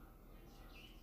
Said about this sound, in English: I'm recording early in the morning. So if you hear the birds chirping, they're awake.